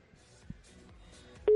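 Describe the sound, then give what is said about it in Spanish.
Telephone line tones as a listener's number is dialed live on a radio broadcast in Valladolid: soft electronic beeps and a hum, then a loud, steady ringing tone cutting in at the very end. No one speaks. “esa llamada que ya hemos seleccionado al eh, oyente y vamos a ir marcando ese número, a ver si en directo nos saluda y puede duplicar esa puntuación del oyente que nos coja el teléfono.”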